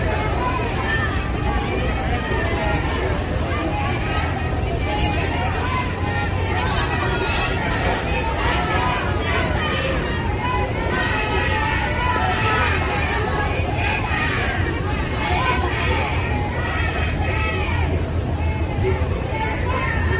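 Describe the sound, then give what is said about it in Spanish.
A large crowd in Granada, Spain, boos and shouts at Spanish politician Sánchez in a dense, continuous roar of many overlapping voices, loud throughout, with no break in the din. “este es Sánchez en Granada y estos son los abucheos”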